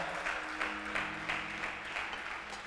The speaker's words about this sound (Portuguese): Dá um aplauso a Jesus, pelo amor de Deus.